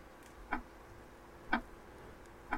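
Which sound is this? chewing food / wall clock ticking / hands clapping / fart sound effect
wall clock ticking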